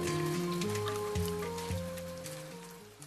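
Steady rain patters and hisses throughout, mixed with a gentle melodic tune whose notes change every half second or so, all fading slightly toward the end.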